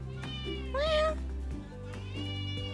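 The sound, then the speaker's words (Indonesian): A cat lets out a clear, rising meow, with quieter harmonic cat vocalizing around it over a steady low background hum. “eh ada Meng”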